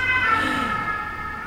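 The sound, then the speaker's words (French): A fire engine siren blares loud as firefighters pass by, a sustained high-pitched wail with a slight pitch sweep, heard alone without any talking. “je coupe parce que les pompiers vont passer.”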